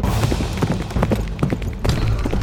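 Hooves of a galloping horse pound in a quick, uneven rhythm, fairly loud over a low rumbling background, with no voices.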